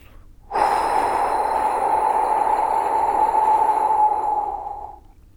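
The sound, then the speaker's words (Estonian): A long, steady, voiced breath blown out through the mouth for about eight seconds, a breathy whoosh at an even strength before trailing off, with no talking over it, as part of a calming breathing exercise: four seconds in through the nose, seven seconds held, eight seconds out. “sa hoiad seitse sekundit hinge kinni ja sa hingad kaheksa sekundit häälega suu kaudu välja nagu sihuke.”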